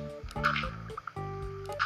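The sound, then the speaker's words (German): A short watery slosh from a video game bucket scooping up water, heard over steady tonal game music in the background. “Wasser wieder mitnehmen.”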